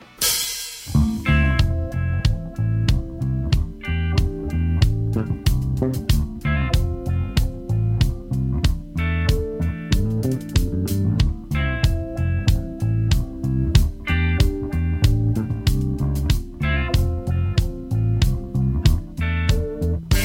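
A full rock band plays loudly and continuously, with punchy drums keeping a steady beat under thick bass and guitars, after a brief noisy start.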